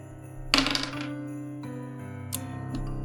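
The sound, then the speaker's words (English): Dice rolled for damage in a tabletop game clatter across a hard surface in one bright burst, followed by a few lighter clicks as they settle, over a steady low background hum. “Alright, and now they're gonna roll damage, which is, for them.”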